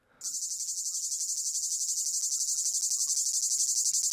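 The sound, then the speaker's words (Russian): A cicada's shrill, continuous buzzing song, of a kind heard in Krasnodar Krai in southern Russia, around Sochi, starts abruptly and carries on loudly and steadily, with a fast pulsing throb, alone without any voices. “Ну, ну вот, в э, это, это, это пение нашей э, цикады, которую можно услышать в Краснодарском крае, в, э, на юге, в Сочи.”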